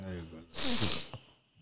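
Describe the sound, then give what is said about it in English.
A sharp, loud sniff, a half-second rush of air in through the nose from someone feeling a little weak with a bug, coming right after a brief bit of voice. “Excuse me for sniffing, y'all.”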